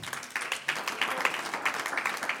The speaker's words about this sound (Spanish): Gloria a Dios, un aplauso al Señor.